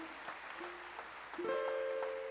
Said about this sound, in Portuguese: Então dê um glória a Deus aplaudindo ao Senhor aí pelas, por toda essa maluquice.